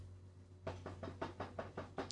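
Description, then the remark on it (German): A quick run of about seven knocks on a chair, fairly loud, tapped in a steady, nervous rhythm over a faint low hum, with no talking. “Entschuldigung, ich habe nur nervös auf den Stuhl geklopft.”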